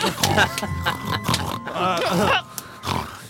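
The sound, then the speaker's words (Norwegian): Several people grunt and oink like pigs in loud, overlapping bursts, a rowdy human imitation of pigs rather than real animals. “Så nå Grynt griser Grynt.”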